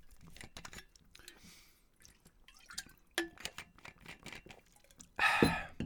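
Soft liquid sounds and small wet drips, followed by a louder gulping splash near the end, as a person takes a quick sip of water.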